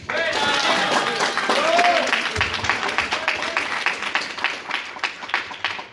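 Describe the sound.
Sustained audience applause, dense and steady at first, then thinning into scattered individual claps toward the end, with a few brief voices and cheers mixed in.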